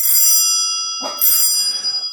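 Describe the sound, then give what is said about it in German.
An old club handbell, used for many years to ring in the association's meetings, rings loudly, struck once and then again after a brief pause, its bright metallic tones sustaining and shimmering between strokes with no voices. “Also die, die Klingel gibt seit äh, vielen Jahren im Verein.”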